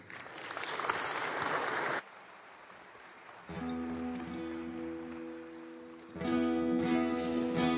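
A crowd at a Timberline service claps loudly for about two seconds to welcome a musician, then the applause cuts off into a brief hush before steady, sustained musical tones begin and swell louder.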